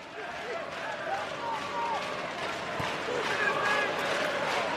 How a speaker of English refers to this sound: Can you hear that, England? Of course you can. That's the sound of a crowd that are pumped for victory because later on today, the Lionesses take on Germany in the final of the European Championship.